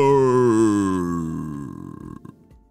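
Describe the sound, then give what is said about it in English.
A voice imitates the growl of Clover, a ginormous monster creature in a story: a low, rumbling vocal snarl that starts loud and slowly fades, breaking into a crackly, sputtering rasp near the end. “That was the sound of the scariest creature of them all.”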